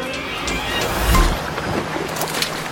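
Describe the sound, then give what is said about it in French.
Ocean waves wash and crash together in a steady roar, swelling into a heavier, booming surge midway before settling back. The sound is fairly loud, with no voices. “Vous entendez les vagues s'entrechoquer Ce ne sont pas celles du golfe de Guinée, ni celles de la mer de Timor, et encore moins celles de la Grande Baie australienne.”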